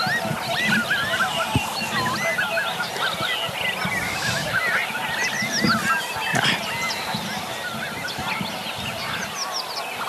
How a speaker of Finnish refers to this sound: Sitten jossain vaiheessa aamua joutsenet lensi tuolla ihan pellon toisella puolella, mutta tosi hyvin myös tämä mikrofoni sai napattua niiden ääneen.